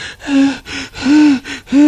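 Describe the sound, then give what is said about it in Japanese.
A voice imitates the heavy out-of-breath panting of a young woman in cycling gear who had ridden a bicycle up Mount Sarakura: five quick, voiced gasping breaths in an uneven rhythm, fairly loud, with no other talking. “サングラスかけてヘルメットかぶって、あの、自転車のかっこいいルックの女の子がすごいぜいぜい言って”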